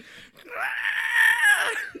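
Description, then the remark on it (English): A person imitates a zombie screech: one sustained, raspy, high-pitched shriek lasting over a second, rising and then trailing off, loud with no talking. “Dave Franco becomes a zombie, does his little zombie screech.”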